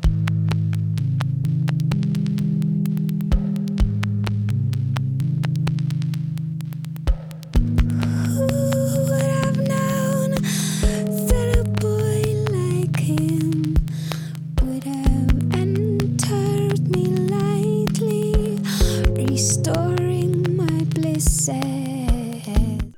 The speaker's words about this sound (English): I'm surprised that that ASMR people haven't gotten super into this album because this song in particular just has that like very soft low synth. I was going to say the synth tones on this are so interesting